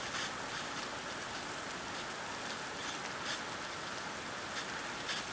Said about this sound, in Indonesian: Tiap tetes hujan saat puncak kemarau sangat dirindukan.